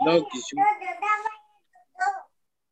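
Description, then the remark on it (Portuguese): A baby babbles in a string of short, sing-song vocal bursts, falls quiet for a moment, then lets out one more brief coo. “é, Bebê.”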